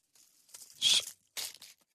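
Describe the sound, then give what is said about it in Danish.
Crisp crinkling and tearing of aluminium foil being unwrapped from a shawarma, in two loud bursts with softer rustling between, no talking. “Nej, men øh, det, det er pakket ind i sølvpapir.”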